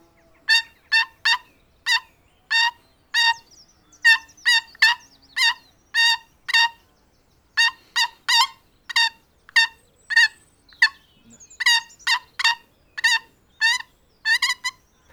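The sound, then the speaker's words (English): A turkey call played as a tune, a loud run of about two dozen short, raspy yelping notes in the melody of Happy Birthday, with no talking over it. “Happy, That was happy birthday on a turkey call”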